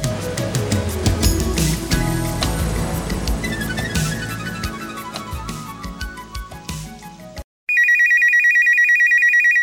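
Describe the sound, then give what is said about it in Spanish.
Music plays, stops abruptly, and after a brief silence a loud electronic telephone ring starts as a caller phones the Radio Eternidad station, its bright warbling tone pulsing rapidly and steadily, with no voices. “Estoy llamando porque quiero apoyar a Radio Eternidad financieramente y quisiera que usted me diga cómo puedo hacerlo.”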